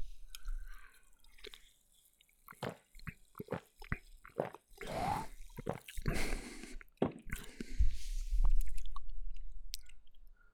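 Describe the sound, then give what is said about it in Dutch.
Wet mouth sounds: scattered liquid clicks and drips, then a noisy slurping sip of a tropical-flavoured fizzy soft drink and a swallow, with no talking. “Hij ruikt gewoon naar Fanta. Wellicht smaakt hij ook zo. Kan ook zijn dat hij heel anders smaakt. Ik ga eens een slokje nemen.”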